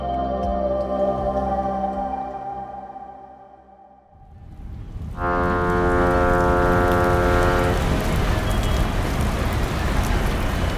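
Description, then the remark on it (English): A low humming drone fades out, then steady rain sweeps in as a dense, continuous, loud hiss, with a fading tonal hum beneath it before the rain continues alone; rain falling from dark clouds at the port of Los Angeles. “Dark clouds fill the sky, and rain begins to fall at the port of Los Angeles.”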